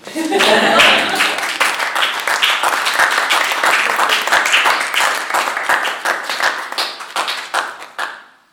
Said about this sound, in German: Vielleicht fürs Radio mal einen Applaus.